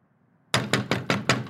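knocking on a door

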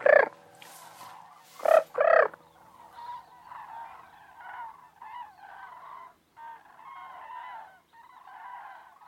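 flock of cranes calling

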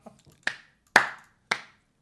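applause

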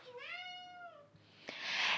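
cat meowing

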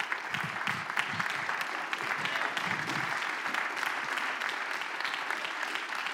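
audience clapping hands

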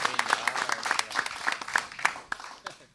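audience applause

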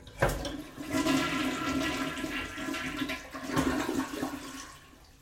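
toilet flushing

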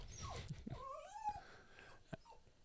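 dog whimpering and growling

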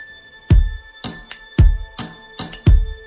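simulated tinnitus ringing tone

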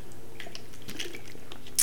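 drinking bottled water

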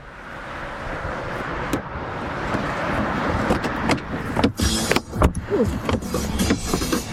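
car interior

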